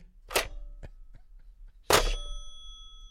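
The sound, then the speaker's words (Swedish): A telephone handset is set down on its cradle: a sharp clack, a couple of faint knocks, then a second harder clunk that leaves a brief metallic bell ring hanging in the air. “Jag vet, det är en telefonlur som läggs på telefonen.”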